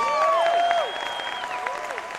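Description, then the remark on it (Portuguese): A crowd at a comedy roast show applauds the comedians present with dense, steady clapping, joined by a few whistles and cheers that ring out over the noise, holding strong before easing slightly toward the end. “Uh, quero uma salva de palmas para os comediantes que estão aqui hoje, começando de lá para cá.”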